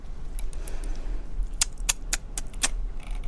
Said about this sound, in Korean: 채율은 혀를 차면서도 마우스를 계속해서 클릭했다